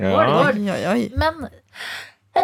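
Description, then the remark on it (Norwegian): A short, breathy sneeze bursts out right after someone's exclamations, with talking just before it and a voice starting again at the very end. “Prosit!”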